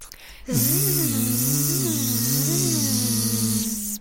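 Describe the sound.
Several voices hum a sustained buzzing zzz sound on the letter Z like a bee, gliding up and down in pitch together for a few seconds, loud, as a group vocal exercise, imitating an insect's drone while feeling the vibration under the index finger.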